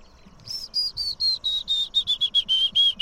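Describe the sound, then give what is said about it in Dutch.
A willow warbler sings a quick run of sweet, whistled notes that gently slide lower in pitch, clear, with no voices over it. “Dat is Vitus.”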